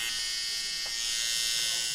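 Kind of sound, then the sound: machine, tattoo machine buzzing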